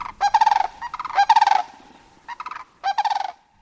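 A lone pair of sandhill cranes passing right overhead call in loud, rolling, rattling bugles, four bursts in quick succession, clear with no other sounds between them.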